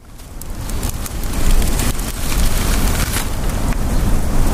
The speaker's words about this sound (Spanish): Hoy les mando la postal sonora desde la orilla de un río.